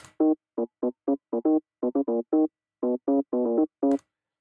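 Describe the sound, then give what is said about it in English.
A bassline doubled by an organ tone an octave higher, made by copying the bassline to a second channel with an organ sound and shifting it up one octave, playing short, punchy staccato notes in a bouncy syncopated pattern, clear and up front with no voices. “And to achieve this, I just copy the bassline down to another channel which has an organ sound to it and shift the whole bassline up one octave.”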